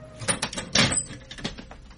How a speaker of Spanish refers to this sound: Pero en aquel instante eh, se abrió con fuerza la puerta de cristales de la sala.